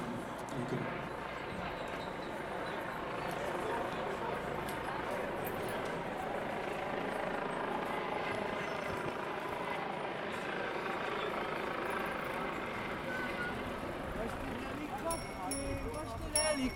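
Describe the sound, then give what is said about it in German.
A helicopter drones steadily overhead, a loud, continuous rumble with a whirring pulse that holds for the whole stretch without fading, with a faint hint of voices beneath. “Helikopter, wo ist der Helikopter?”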